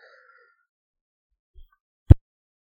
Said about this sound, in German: Genau, den musste mal kurz husten.